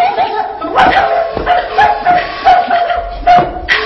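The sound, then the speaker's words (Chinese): A dog barks repeatedly in sharp, fairly loud bursts, roughly every half second, with some yelping mixed in over a steady background hum. “打死你这死狗！”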